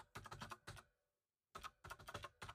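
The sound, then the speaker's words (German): Rapid keyboard typing of a private message to a dog accessories shop, in two bursts separated by a short pause, clicks of keys being struck at a steady pace, with no voices. “Ja, schreibe ich sie doch mal an.”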